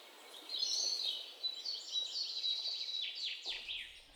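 A quick flurry of high, bright bird chirps and tweets, busy and overlapping, rising and falling in short bursts for a few seconds with no voices.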